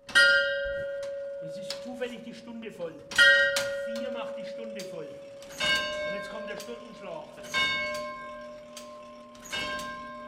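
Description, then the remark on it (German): A clock's striking mechanism from 1951, rebuilt together with its bells and winding weights, rings bells: about five clear, resonant strikes a couple of seconds apart, each tone ringing on and overlapping the next, fairly loud. “50 Uhren restaurierte er, schmiedete und feilte akribisch manche Teile nach, baute zum Beispiel ein Schlagwerk von 1951 inklusive der Glocken und Aufzugsgewichte wieder auf.”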